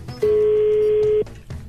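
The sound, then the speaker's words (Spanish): A phone line rings once on an outgoing call: a single steady electronic tone, loud, lasting about a second before cutting off, with no voices. “Bueno, esperemos que coge el teléfono.”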